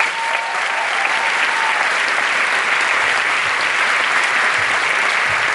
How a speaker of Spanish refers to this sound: Un fuerte aplauso para mi esposa.